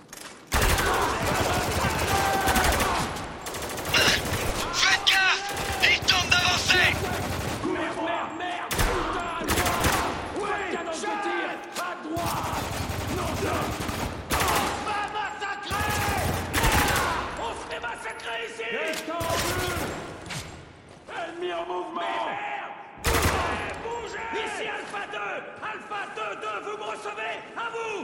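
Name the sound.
video game gunfire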